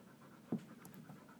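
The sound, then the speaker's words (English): A dog pants quietly, rapid soft breaths repeating in a steady rhythm, with one slightly louder huff partway through. No one speaks. “That was the dog.”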